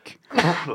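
A single sneeze, a brief soft intake followed by a loud, sharp burst of breath, heard on its own with no talking.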